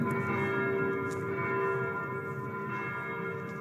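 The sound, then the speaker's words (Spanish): Bells ring in a continuous, overlapping wash of sustained metallic tones over the opening credits of an opera recording, steady and fairly full throughout, with no voices and no clear individual strikes standing out. “Estas campanas no están escritas en la música de Puccini.”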